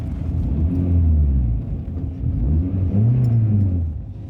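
A car drives steadily along a road on 24 August 2018, on the way out of Østerdalen to Telemark, its engine a low, continuous rumble with gentle rising and falling pitch as it shifts speed.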